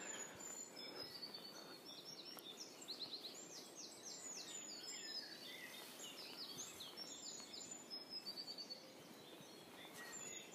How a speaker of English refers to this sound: I've been distracted by all the birdsong, really.